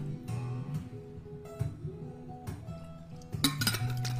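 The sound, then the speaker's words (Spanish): Someone takes a drink of water from a glass: a few sharp clinks and taps of glass being handled, with soft low handling noise between them and a brighter clatter near the end. Nobody speaks. “disculpen que voy a tomar un poquito de agua porque se me está secando la garganta.”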